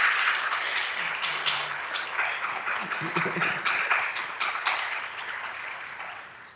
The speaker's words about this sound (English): now you can clap. Yeah.